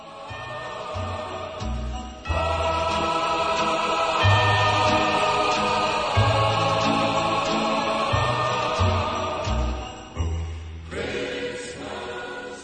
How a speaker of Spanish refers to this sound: villancico de … suena así